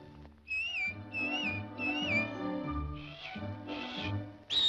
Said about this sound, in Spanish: Cuando estés en líos por tu bien o por tu mal, dame un silbidito, dame un silbidito. Y si no pudieras dominar la tentación, dame un silbidito, dame un silbidito. No olvides de silbar, no basta soplar.